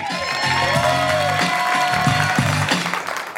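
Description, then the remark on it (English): An audience at a stand-up comedy show bursts into loud, sustained applause with whoops and cheers as comedian Dino Archie is brought on stage, steady clapping for a few seconds, no one speaking over it. “Make some noise, it's Dino Archie!”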